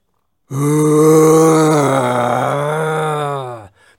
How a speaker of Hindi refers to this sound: तत्पश्चात आकाश में एक भयानक गर्जना सुनाई दी